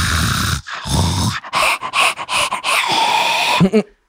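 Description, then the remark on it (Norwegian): A person imitates heavy, rapid panting: a quick series of loud, breathy in-and-out gasps in an uneven rhythm, ending with a short voiced sound. “Føltes som noen som lå og pusta ved sida av meg.”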